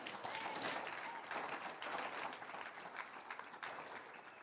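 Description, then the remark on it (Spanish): An audience applauds the Lord together, a dense, steady wash of many hands clapping that stays fairly loud throughout and tapers slightly at the end. “Un aplauso al Señor.”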